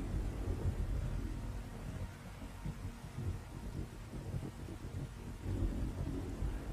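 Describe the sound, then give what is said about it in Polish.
Steady rain hiss over a deep, continuous low rumble like thunder, filling the scene as a dense, constant ambience with no voices. “Poprawia czapkę, chroniąc się przed deszczem i rusza w waszą stronę.”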